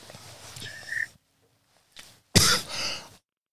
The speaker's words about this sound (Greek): Συγγνώμη, με πιάσε λίγος βήχας. Τι να κάνω, συμβαίνουν και αυτά, ζωντανή εκπομπή είναι.